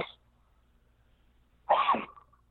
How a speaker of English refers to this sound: Caught me mid sneeze. I'm allergic to all the money around here uh, in Vegas.